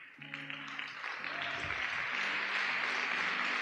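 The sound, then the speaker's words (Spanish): An audience applauds, a dense wash of many hands clapping that swells and holds steady, with sustained low keyboard chords playing underneath. “Si aplaude, aplauda al Señor con gratitud.”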